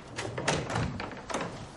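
A door is opened with a few soft knocks and thuds of the handle and frame, close by and fairly quiet, with no voices.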